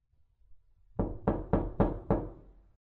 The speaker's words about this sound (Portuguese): Era madrugada quando escuto batidas pesadas na porta da frente.